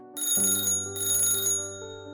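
A telephone rings in two bright, metallic bursts with a brief pause between them, its high jangling tone loud and alone, leaving a lingering hum as it fades.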